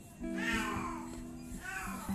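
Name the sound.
cat meowing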